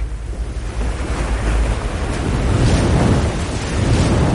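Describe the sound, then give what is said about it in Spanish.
A heavy, continuous roar of river floodwater surging over a bridge as the flood inundates a town, loud, with a deep low rumble that swells slightly louder midway and never lets up. “El agua del río sobrepasa el puente. La riada inunda el pueblo.”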